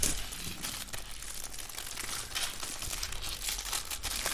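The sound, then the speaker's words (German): Steady, dense crinkling and rustling of snack packaging from a care package being torn open to try the snacks, with sharp crackly bursts throughout and no voices. “Okay, dann Jungs, dann macht's mal auf.”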